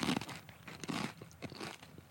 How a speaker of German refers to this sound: Ich höre dich nicht, ich knusper zu laut.